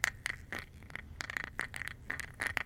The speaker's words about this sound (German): Machst du jetzt gerade deinen Fingernagel ab?